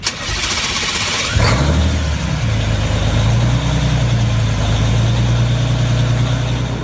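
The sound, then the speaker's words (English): A Cummins diesel race engine, the number 28 Cummins Special, started for the first time in 17 years, cranks over with a brief whirring rasp to circulate the oil, then catches and settles into a steady, deep, throaty idle rumble, loud, with no voices. “after spinning the engine over a few times to circulate the oil, they threw the start switch and the number 28 Cummins special came to life with a healthy, throaty rumble.”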